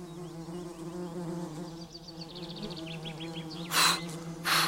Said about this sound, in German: Der Tisch ist verlorenes Terrain, die Wespen stürzen sich auf die Reste des Feigenbrots.